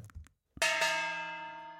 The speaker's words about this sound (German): Waren wir jetzt bei 19 oder bei 20? Jetzt habe ich nicht aufgepasst. Oje. Oh, musst, musst du nochmal die Gongs zählen.